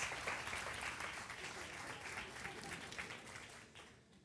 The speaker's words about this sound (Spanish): Aplauso para los actores, por favor. Gracias.